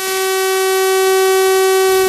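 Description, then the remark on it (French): A loud, steady civil defense siren of the alert and information system wails continuously during a test exercise, a single sustained tone with buzzing overtones holding for the full stretch, with no voices over it. “Et pas seulement, les sirènes du système d'alerte et d'information vont elles aussi être activées.”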